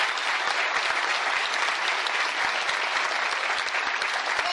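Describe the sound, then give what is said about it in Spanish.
An audience claps steadily for several seconds, a dense, even wash of many hands with a bright, crackling texture and no pauses or voices standing out. “Regáleme un aplauso para”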